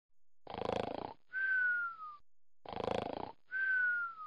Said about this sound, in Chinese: 那一晚，每一个人都喝多了，满军营都是此起彼伏的呼噜声。